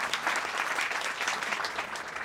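Audience applause fills the space, a steady dense patter of many hands clapping at once, sustained and fairly loud with no pauses, and no voices break through. The applause welcomes a guest from IM College, a vocational school, invited onto the couch.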